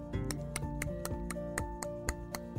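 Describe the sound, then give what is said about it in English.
A voice imitates orca clicking by clicking the tongue on the roof of the mouth, a run of about ten sharp clicks in a steady, even rhythm, crisp over soft sustained background music. “The orca began to click some sounds like this.”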